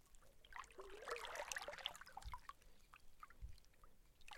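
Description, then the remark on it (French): Gentle water sloshes and trickles, with soft irregular splashes and a couple of low hollow knocks, as river water laps around a streamlined green plastic kayak gliding in a light current on a river. No one speaks. “pour le canoë il glisse dans le léger courant, forme fuselée de plastique vert pour une bulle de sérénité, voguant sur la rivière.”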